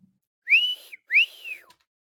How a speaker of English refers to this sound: you're whistling. Yeah, uh, whistling.